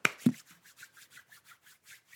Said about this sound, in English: Yeah, this is the sound of me rubbing my the hands together.